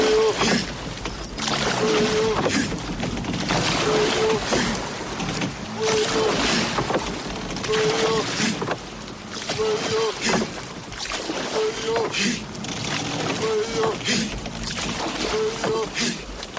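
Oars dip and splash into water in a steady rhythm while rowing, roughly one stroke every two seconds, clear over a constant wash of water and faint background noise.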